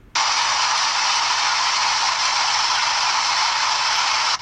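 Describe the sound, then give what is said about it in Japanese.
An automatic poultry feeder for chicks runs each time the feed runs low, with a loud, steady rushing hiss that starts abruptly and holds constant for several seconds, harsh, with no voices. The chicks are exposed to this noise, which is actually louder than recorded. “それは、給餌器が流れる音で、餌が減って給餌器が回るたびにヒナたちは騒音にさらされています。”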